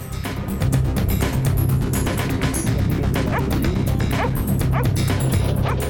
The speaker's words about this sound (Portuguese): Quando o cão ele late, ele está sinalizando que tem alguma coisa aqui. É assim que a gente consegue identificar.